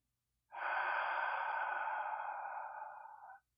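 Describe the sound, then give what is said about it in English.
A single steady inhale through the left nostril, with the right nostril pushed closed by the index finger, in a calming breathing exercise: a hissy, airy draw lasting about three seconds, fairly loud with no talking, then stopping abruptly. “And it's simply a matter of taking your right hand, your index finger, and placing it over your nostril or pushing your nostril closed, and then breathing in through your left nostril only”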